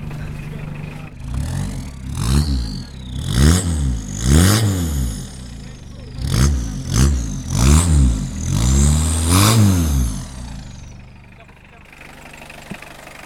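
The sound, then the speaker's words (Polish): A turbocharged car engine, stock 90 hp and 195 Nm with a tuned turbo and pump, revs repeatedly in short, throaty bursts through a loud straight-through exhaust, recorded at the rear exhaust, rising and falling about eight times before settling back to idle. “polecam przy tylnym wydechu, bo jest przelotowy.”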